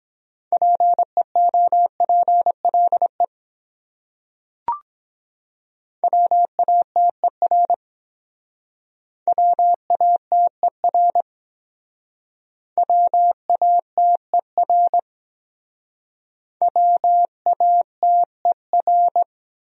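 Morse code sent at 17 words per minute, spelling common words from a top-100 word list: a steady mid-pitched tone keyed in quick dots and dashes, forming five separate groups with short pauses and a single click between them.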